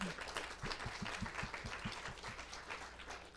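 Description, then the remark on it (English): An audience applauds steadily to welcome a panel at an evening event, a dense wash of many hands clapping at once with no voices, filling the room at moderate loudness for a few seconds. “Let's have a round of applause to welcome our panel tonight.”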